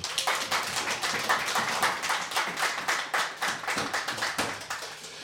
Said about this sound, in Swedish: Eh, kan vi ge dem en applåd?